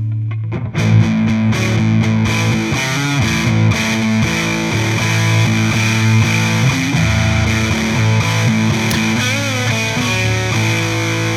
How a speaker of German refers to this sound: So, und jetzt wollen wir Zerre auf volle Pulle, ne? Und leveln ein bisschen weniger bitte, sonst haust du uns die Ohren kaputt. Und übersteuerst dann Amplitude.